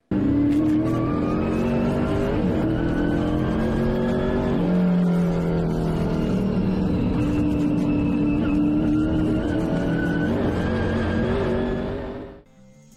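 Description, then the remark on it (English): Race car engines roar continuously for about twelve seconds, loud, with rising and falling whines as several cars accelerate and pass, and no voices before the sound cuts off. “That'll get you pumped up for some racing, right?”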